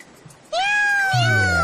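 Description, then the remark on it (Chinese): After a brief quiet moment, a kitten lets out one long, high-pitched meow that slides slowly downward in pitch, with a lower, rougher tone joining in toward the end. “喵喵！你现在看到小吉了吗？”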